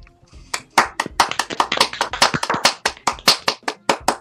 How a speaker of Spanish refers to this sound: El aplauso.